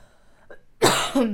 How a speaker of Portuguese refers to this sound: eu vou tossir, vamos ignorar.